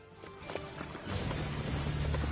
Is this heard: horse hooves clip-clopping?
yes